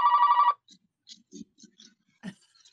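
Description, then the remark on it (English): A telephone rings once in a loud, buzzy half-second burst in a radio studio during a show, then cuts off, leaving a few faint scattered clicks and soft thumps. “the phone has never rang while we're in the studio.”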